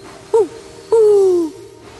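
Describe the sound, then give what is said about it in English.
An owl hoots twice in a dark forest, a short note followed by a longer, drawn-out one that slides gently downward in pitch. The calls are clear, with nothing else but faint background. “Then Thomas heard an owl hooting.”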